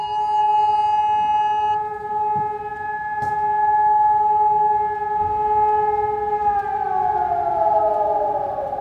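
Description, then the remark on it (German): A loud, sustained civil defense siren wails steadily through the whole stretch during the 2022 warning day test at 11 a.m. in Düsseldorf city centre, Germany, its tone bending downward near the end, with faint city background noise and no talking. “Es gab eine bessere Vernetzung, es gab neue Technik und um 11 Uhr gestern war es dann soweit. In der Düsseldorfer Innenstadt klang es so.”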